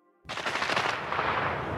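Loud gunfire erupts suddenly after a brief quiet moment, a dense rapid rattle of shots blurring into a continuous harsh roar that holds steady to the end, with no voices.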